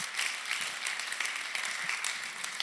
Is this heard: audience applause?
yes